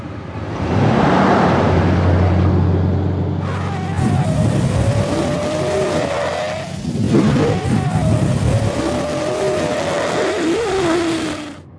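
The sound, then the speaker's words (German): A hurried driver's car engine revs up and accelerates loudly once the road is clear, its pitch rising in waves over about ten seconds before cutting off, with no talking. “Der eilige Autofahrer gibt, als die Straße frei ist, wieder Gas, kommt aber nicht weit.”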